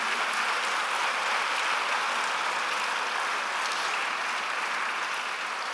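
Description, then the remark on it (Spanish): An audience bursts into sustained applause for God in the morning, a dense, steady wash of many hands clapping at once, holding its loudness for several seconds with no voices rising above it. “oh, le puedes dar un fuerte aplauso a nuestro Dios esta mañana.”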